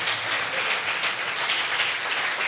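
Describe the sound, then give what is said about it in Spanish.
An audience applauds for God in the morning, a dense, steady wash of many hands clapping, loud and continuous throughout with no distinct individual claps and no voices standing out. “En un fuerte aplauso a nuestro Dios.”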